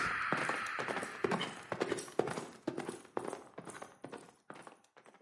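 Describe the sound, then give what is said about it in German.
Rapid hoofbeats of a galloping horse ridden away into the night, loud at first, then fading steadily as it rides away. No one speaks. “Noch bevor einer der beiden Gesetzeshüter reagieren konnte, schwang sich der kopflose Reiter laut lachend auf sein Ross und verschwand schreiend in der Nacht.”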